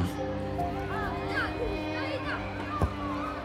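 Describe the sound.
Children playing in a schoolyard: a steady hubbub of many young voices shouting and chattering at once, with high squeals rising above the busy din and a brief thump partway through.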